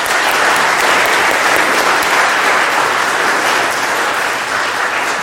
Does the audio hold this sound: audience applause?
yes